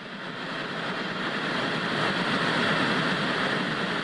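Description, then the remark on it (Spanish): A steady, loud mechanical roar of trains at Berlin's central station in Germany, where trains arrive from Poland, holding constant for a few seconds with no clear voices above the noise. “La estación central de Berlín se ha convertido en un punto de apoyo para miles de personas.”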